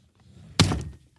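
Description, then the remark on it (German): The top drawer of a desk is pulled open with a sudden wooden thunk followed by a short scraping slide, fairly loud, then quiet with a faint click at the end. “Kannst du diese ähm, Schublade da, die oberste Schublade ja, vom oder? Schreibtisch einmal aufmachen?”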